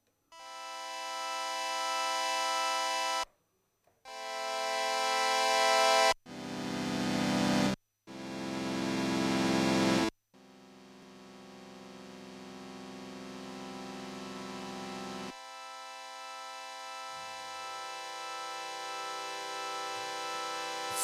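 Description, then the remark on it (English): A bright, buzzy synthesizer with its envelope attack turned up plays a series of sustained notes, each fading in gradually and taking a long time to swell to full volume, ending with one long held tone that slowly builds over several seconds. No one speaks. “So you hear, it's now taken a long, long time to be at the maximum level, the decay.”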